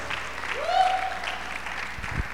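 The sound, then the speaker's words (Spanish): An audience claps steadily in a dense wash of applause, with a brief high cheer or whoop rising above it early on, the sound fairly loud and continuous throughout. “Alguien tiene que gritar o aplaudir o hacer ruido.”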